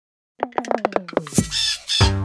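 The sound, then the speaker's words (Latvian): A parrot screeches loudly: a quick series of harsh, rhythmic squawks, then a longer, raspier screech at the end, with no other sounds around it. “Ir papagaļi, kas no paklaigās no rīta vakarā.”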